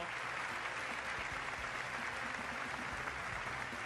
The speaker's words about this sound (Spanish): Ahora sí, recibimos a los protagonistas de esta noche. Y los invitamos eh, a los seis candidatos a presidente que van a disputar la presidencia de la Nación el domingo próximo. Los recibimos con este aplauso.